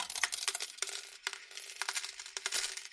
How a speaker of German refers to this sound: Die piepsende Tonfolge eines Glücksspielautomaten. Mehrere Münzen fallen in den Schacht.